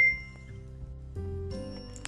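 A phone's text message chime plays, a few clear electronic tones stepping from one pitch to the next over about two seconds, moderately loud with no talking.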